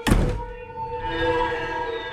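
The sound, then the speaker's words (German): A house door is shut by someone going quickly inside, a single solid thump near the start, its low thud quickly fading into a steady, lingering tonal hum with no one speaking. “Der Bruno schläft schnell ins Haus und macht die Türen hinter sich zu.”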